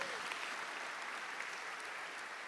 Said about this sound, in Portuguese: Quem pode dar um aplauso ao Senhor nessa manhã por isso?